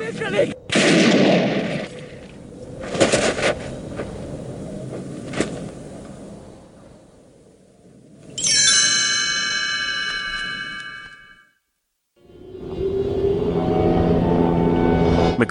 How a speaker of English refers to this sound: The Americans scatter while the Norwegian continues shooting at the dog as it runs deeper into the camp.